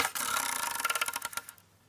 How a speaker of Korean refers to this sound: 여러분 돌림판 돌릴게요. 보이죠? 자, 첫 번째 번호 갑니다. 하나, 둘, 셋. 돌아라.